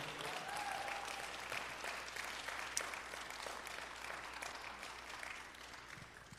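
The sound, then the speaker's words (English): A church audience applauds steadily on Father's Day, a dense wash of many hands clapping at once that holds strong before easing slightly toward the end, with no clear voices standing out. “Come on, let's give it up”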